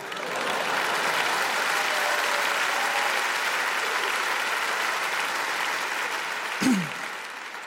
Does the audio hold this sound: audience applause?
yes